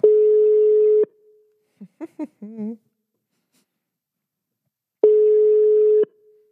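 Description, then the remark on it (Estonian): A steady phone ringback tone sounds twice as a number is dialled and a call is placed at night. Each burst is about a second long and separated by a long pause, with a few brief murmured voice sounds in the gap. “ja kutsub.”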